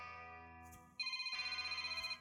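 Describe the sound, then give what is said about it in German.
An electronic phone ringtone plays on its own, starting as a steady tone and then switching to a rapid, evenly pulsing trill, clear and fairly loud. “Oh, mein Telefon. Augenblick bitte.”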